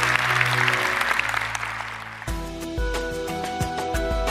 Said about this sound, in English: Can we give one more round of applause for those who just did that? That's awesome.